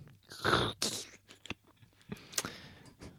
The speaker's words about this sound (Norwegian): Ja, jeg må ta meg en slurk vann, tror jeg. Gjør det.